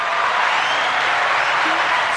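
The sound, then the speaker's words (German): Sustained audience applause, a dense, steady wash of many hands clapping at an even, fairly loud level with no break, filling the whole stretch without any voices on top. “Super, jetzt kriege ich auch mal Applaus.”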